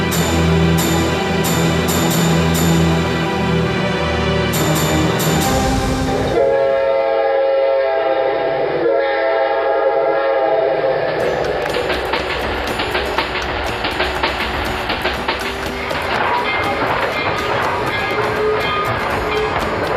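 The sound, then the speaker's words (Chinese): A train leaving a station rumbles loudly and continuously, its horn sounding long, steady blasts over the clatter of the wheels, with the noise building into a dense rush of rolling rail sounds toward the end. “出火车站了”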